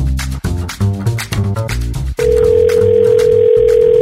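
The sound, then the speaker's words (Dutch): A steady electronic telephone ringing tone from an outgoing phone call sounds loudly after a short stretch of music, holding for over a second, pausing briefly, then resuming, with music continuing underneath. “Ja, nu pak ik even mijn telefoon erbij, want ik ga bellen met ons politieke orakel van vandaag.”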